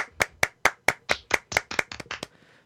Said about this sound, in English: That was clapping, not anything else.